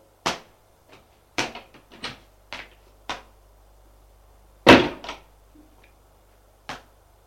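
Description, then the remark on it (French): A door in a large, modern basement kitchen being opened: a run of sharp clicks and knocks from a handle and latch, then one louder, fuller thud, and a last faint click. No voices. “Il va vers la porte.”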